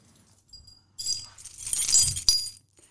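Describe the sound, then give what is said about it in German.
A bunch of keys, including the key to a city-funded coworking writing space, jingles and clinks for about two seconds, bright metallic rattling with a sharper clack near the end, no voices. “Also ähm, worauf ich mich schon wirklich sehr freue, denn ich habe schon den Schlüssel”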